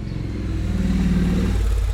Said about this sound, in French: Voilà, une jolie moto qui passe.